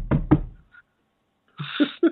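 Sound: knocking on wood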